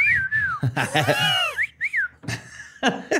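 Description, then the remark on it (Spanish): A person whistles short, gliding chirps in imitation of a mongoose's whistle, a few quick rising-and-falling notes close up, mixed with laughter and voiced vocal noises. “Pero sí les chiflaba y les hacía ruidos humanos.”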